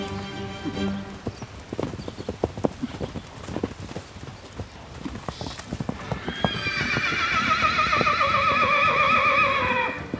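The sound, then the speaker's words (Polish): Young Malopolski horses at a horse show: hooves clip-clop in an uneven patter on hard ground, then a horse lets out a long, loud whinny that rises and trembles over the final seconds. “Przekręcamy wehikuł czasu i już jesteśmy z powrotem na pokazach młodych koni małopolskich.”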